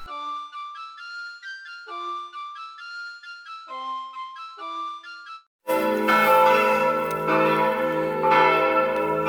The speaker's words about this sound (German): Die Glocken der Kirche in Laggenbeck, St. Maria Magdalena, hören Sie heute.